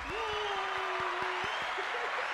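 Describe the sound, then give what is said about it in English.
A steady round of applause, a dense wash of many hands clapping at an even level, with a sustained whoop-like tone held over the first part. No one speaks. “Let's give you a round of applause for that.”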